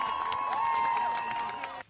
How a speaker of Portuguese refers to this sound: Esta foi a resposta da multidão.